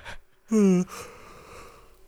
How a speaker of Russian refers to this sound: Со звуком это вообще правильно. Все это, вот, это идеальное выполнение. Зевать полезно для голоса и для настроения.